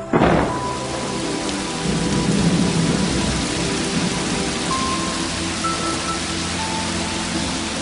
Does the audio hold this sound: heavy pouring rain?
yes